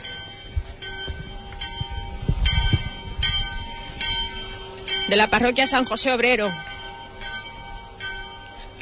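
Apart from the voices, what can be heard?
church bells ringing out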